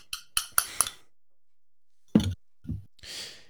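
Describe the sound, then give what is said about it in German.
A pepper mill knocks four times in quick succession in the background, sharp and clicky, followed after a pause by two duller thuds and a soft breathy exhale; fairly quiet, with no talking. “Man hört übrigens jedes Pfeffermühlenklopfen im Hintergrund.”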